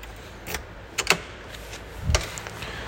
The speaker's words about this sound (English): Wait, hold on. You're gonna hear me open the doors to my Airbnb. Give me a second.